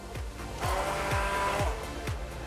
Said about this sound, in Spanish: Para empezar, lleva calúa, que es licor de café. Le ponemos un poco de chocolate, y una cucharadita de café. Al tener ya esta mezcla, usamos la batidora